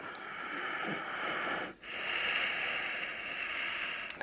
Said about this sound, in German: Besonders gut zur Vata-Beruhigung ist Agnisara, hm, Feueraktivierung, Ujjayi-Atem, das heißt den sanft hörbaren Kehllaut,